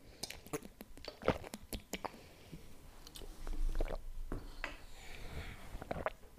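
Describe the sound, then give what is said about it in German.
Mouth sounds of someone drinking: wet clicks and smacks, a few gulping swallows, and soft liquid noises, with no talking. “Moment, ich muss was trinken.”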